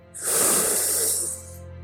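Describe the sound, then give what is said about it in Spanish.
A single sustained, airy rush of breath as a small cat sucks in the air around it, hissing loudly for about a second before fading out over a low steady hum. “Se acercó ante este pequeño soplido y empezó a absorber el aire a su alrededor.”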